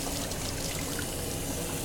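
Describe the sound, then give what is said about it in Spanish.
Water runs steadily from a tap in a house, a continuous pouring hiss and trickle that stays even throughout, with no voices. “Ya había subido la mitad de las escaleras cuando el agua volvió a escucharse.”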